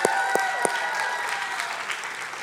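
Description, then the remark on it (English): A crowd applauds the worship team steadily, dense clapping at moderate loudness, with a few sharper claps or whoops standing out near the start. “And so, um, our worship team, can we give it up for our entire worship team?”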